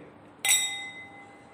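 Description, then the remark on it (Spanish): Two wine glasses touch in a toast with one bright clink, leaving a clear ringing tone that slowly fades. Another light tap of glass follows right at the end. “Mire qué belleza cómo suena esta copa.”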